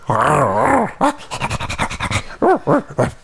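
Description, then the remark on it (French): A person mimics a dog as a message to their own dog: a wavering, whiny vocal sound, then quick breathy panting bursts, ending in three short, punchy imitated barks. “Alors je vais faire un petit message à mon chien qui a pas pu venir.”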